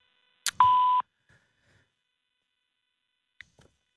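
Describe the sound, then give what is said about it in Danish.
A sharp click, then a single loud, steady electronic beep from a telephone answering machine, lasting under half a second and signalling the caller to leave a message, followed by near silence broken by a couple of faint clicks. “Indtal en meddelelse efter klartonen.”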